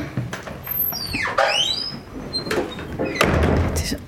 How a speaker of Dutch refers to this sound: Ik heb een pasje. Dus gaan de deuren voor me open.